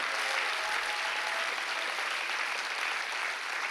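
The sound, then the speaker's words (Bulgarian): A large crowd claps steadily, a dense, continuous wash of applause for several seconds with no voices standing out. “О, ако ръкопляскаш, ръкопляскай, като че си навярваш?”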